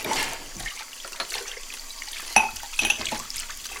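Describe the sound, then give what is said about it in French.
Running tap water hisses steadily while dishes are being washed in a home kitchen, with a few sharp clinks of plates and utensils knocking together. No one speaks. “Pendant que je fais ma vaisselle, je peux pas m'empêcher de penser.”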